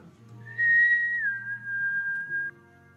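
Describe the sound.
A single long, shrill whistle blown through two front fangs, starting sharply, dipping slightly in pitch, then holding steady for about two seconds over a low background hum.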